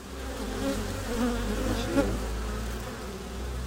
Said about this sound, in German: Aus einer Holzhütte schwirrt Bienengesumm.